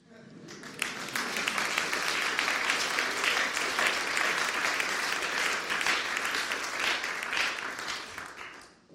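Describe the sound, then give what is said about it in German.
Sustained applause from a large audience, a dense wash of many hands clapping that starts abruptly, holds steady and loud for several seconds, then fades out at the end. “Wäre es nicht mal Zeit, dass ein Papst ein bisschen Beifall klatscht?”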